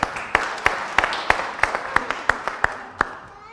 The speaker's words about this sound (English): Can we clap for him, please?